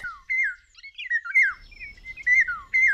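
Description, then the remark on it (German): Eurasian golden oriole song in a hardwood floodplain forest in summer: fluting, melodic whistled phrases repeating in quick succession, clear, with a faint low rumble of background noise in the second half. “Man hört im Sommer seine sehr exotischen Gesänge eigentlich.”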